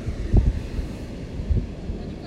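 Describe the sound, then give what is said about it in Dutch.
Gusty wind at the beach buffets the microphone, a low rumbling roar with a couple of heavier thumping gusts, steady, with a faint surf-like hiss of waves underneath. “Dus, we zitten nu aan het strand. Ik ga eens even kijken of we een podcast op kunnen nemen aan het strand. Terwijl het waait en de golven”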